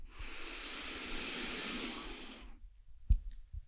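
A long, steady inhale drawn in through the nose during a guided breathing exercise, airy, lasting over two seconds, followed by quiet and a couple of small clicks.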